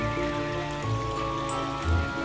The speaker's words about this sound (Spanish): Cerca de ti intuyes un tranquilo río. Te acercas guiado por el sonido del agua y te sientas justo en su orilla. El agua es cristalina.